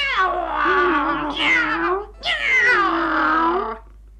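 Two long, drawn-out cat meows in quick succession, loud, each wavering in pitch with a whiny, yowling quality before trailing off.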